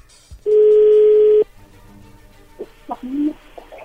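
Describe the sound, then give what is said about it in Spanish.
A single steady telephone tone sounds for about a second as a phone call connects, a flat mid-pitched beep that stops abruptly, followed by faint clicks and some low rustling chatter-like noises. “A ver, parece que ya entró la llamada, no hagan ruido.”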